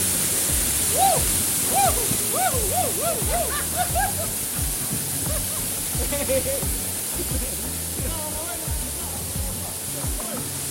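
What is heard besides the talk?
waterfall rushing water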